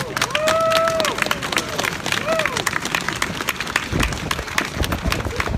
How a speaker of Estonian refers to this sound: teate sellest juhtumist, Kersti Nüüdi juhtum, et aplaus Tartu Ringkonna kohtule.